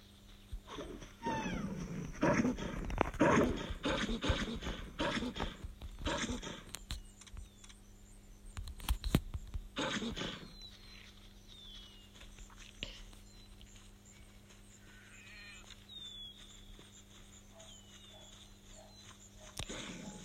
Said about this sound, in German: Der gegnerische Wolf klaut meine Beute.